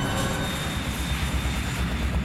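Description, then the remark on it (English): A loud, steady aircraft engine roar with dense low rumble and a thin high whine as a passenger plane speeds down the runway for takeoff, continuous with no voices. “Richard's anxiety began to increase in direct proportion to the plane's increase in speed as it taxied down the runway”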